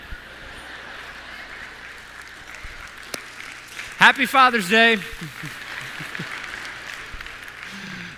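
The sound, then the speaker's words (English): A crowd of men in the audience applauds steadily throughout, a soft continuous patter of clapping, while a voice briefly speaks and laughs over it partway through. “All the men are clapping.”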